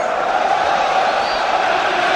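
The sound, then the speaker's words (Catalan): A football stadium crowd shouting and booing the player Ramis in a dense, steady roar, loud and unbroken for the whole couple of seconds, with no single voice standing out. “Crits.”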